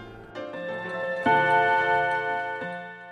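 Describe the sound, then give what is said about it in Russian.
A clock chimes in the evening, striking thirteen, several bright, ringing strikes layering over one another with sustained, bell-like tones, fairly loud, with no voices. “Но под вечер часы снова пробили 13.”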